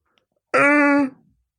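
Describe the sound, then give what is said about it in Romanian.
A single short, voiced vocal sound imitating a hidden, stifled yawn, held steady for about half a second and then trailing off into breath. It's fairly loud and stands alone with no talking. “Este căscatul uh, ascuns.”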